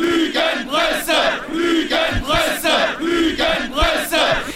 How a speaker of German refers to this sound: Moment, ich suche nochmal den wütenden Mob raus. Ja, rufen Sie oh. mal den Mob. Jetzt bitte.